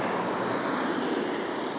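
A steady rushing hiss of water as cars drive over large puddles on a street, tyres sweeping through the water, sustained and fairly loud for the whole stretch with no voices.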